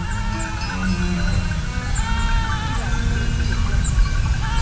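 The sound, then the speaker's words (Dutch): Goats bleat in a busy outdoor setting, their wavering calls blending with high bird chirps and a steady low rumble of background noise. “Om haar heen huppelende geiten.”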